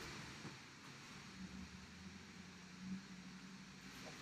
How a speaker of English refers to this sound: the fuck is this garbage truck out here today? God damn.